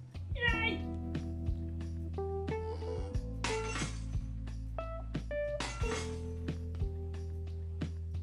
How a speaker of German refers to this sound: Wenn du noch ein Glas runterschmeißt. Okay, nein, sie schmeißt kein Glas.